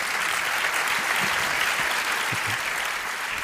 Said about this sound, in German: Applaus